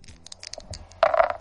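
An erotic dice app from Google Play, rolled by shaking the phone, gives a quick series of small, bright clicks, then a denser burst of rattling near the end, light and clattery with no talking.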